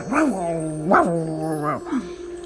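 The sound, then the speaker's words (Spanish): A person imitates a growl with three or four voiced grumbling bursts, each rising and then falling in pitch, in quick succession with no words. “Por ejemplo, cuando contestamos de mala manera, mm, la mamá nos dice algo y, más o menos como que gruñimos, como”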